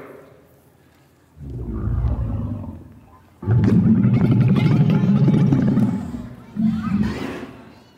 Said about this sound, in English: What was that? That was a camel spitting.